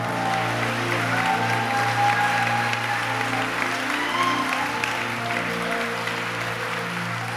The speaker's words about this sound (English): Just give him a hand clap and thank him.